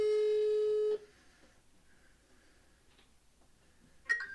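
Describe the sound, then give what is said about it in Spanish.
A phone line's hold tone: one loud, steady electronic beep lasting about a second, followed by near silence and then a short, brighter chirp at the end. “quería marcarle otro, pero se me olvidó que sonara WhatsApp, güey. Entonces lo dejé en espera”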